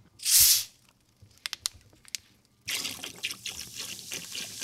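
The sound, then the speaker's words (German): A short hissing burst, a few clicks, then a steady fizzy pouring of cola splashing into a kitchen sink drain, the cola fizzing back up out of the drain, moderately loud with no talking. “Du hast Cola mitgebracht.”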